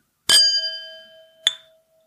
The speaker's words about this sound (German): Pass mal auf, ich habe noch eine leere Himmelspforte Flasche stehen. Ich kann anstoßen mit dir.